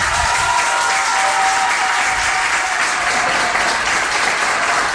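Sustained, dense applause from a large group in the Vilassar de Mar council chamber as the new mayor is proclaimed, a steady wash of many hands clapping at once without pause for the full five seconds, loud and even with no voices standing out.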